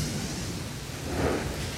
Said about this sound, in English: It's really a steady flow of rain right now, but what we're seeing is just more saturation. The water is piling up on roads, including right here in this parking lot.